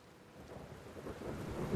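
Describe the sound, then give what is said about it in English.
Steady rain hisses and patters continuously with a low, rumbling undertone, swelling slightly louder toward the end. No voices are heard. “It's raining chocolate sprinkles. Again.”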